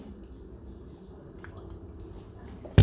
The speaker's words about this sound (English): Always increase your water too. That's what I'm drinking right now.